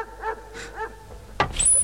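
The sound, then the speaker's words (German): A dog gives a few short, whining yelps in quick succession at moderate volume, followed by a sharper, louder burst near the end. “Na, ich geh mal zurück, sonst kommt dieser Hund noch rein”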